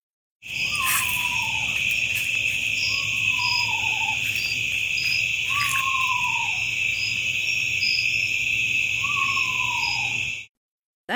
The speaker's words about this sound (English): That's an eastern screech owl, and I recorded it myself in my own driveway in September of 2018. It sounds like a ghost. A lot of owls sound like ghosts.